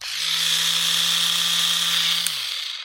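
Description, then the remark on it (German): An electric doner kebab knife, the kind used to cut meat from a doner spit, gives a steady, high-pitched electric buzz with a low motor hum underneath, running continuously for about two and a half seconds, then cutting off abruptly, fairly loud. “So, so ein Messer, mit dem der Türke vom Döner das Fleisch unterschneidet.”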